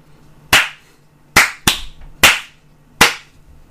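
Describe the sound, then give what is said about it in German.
Five sharp hand claps in an uneven rhythm, two of them coming in quick succession, each a bright, loud crack with a short decay and no voices in between, clapped while stopping a recording session. “Ich stoppe die Aufnahme. Ich klatsche.”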